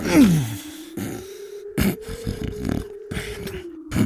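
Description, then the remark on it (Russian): A voice mimics loud snoring: a steady, buzzing low drone broken by rough, snorting bursts about once a second, fairly loud, with no words spoken. “Да ты ужасно храпишь. Спать мне не даешь.”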